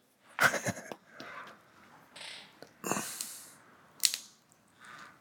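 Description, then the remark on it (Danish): A small bottle of basil being opened: a quick cluster of sharp plastic clicks and crackles, with a window creaking in the background, then softer rustling, a brief airy hiss and one more crisp click, with no voices. “jeg åbner en lille flaske her.”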